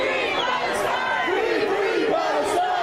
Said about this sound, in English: Now, when they see Jews across the street holding uh, Israeli flags, they then start shouting at them as loud as they possibly can Free Palestine. Free, free Palestine!